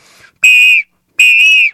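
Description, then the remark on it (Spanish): Two loud, sustained shrill whistle blasts from a pre-Hispanic eagle whistle with three chambers made to imitate an eagle's cry, each lasting about half a second with a piercing, slightly wavering tone, separated by a short silence. “Este es un silbato que representa el águila”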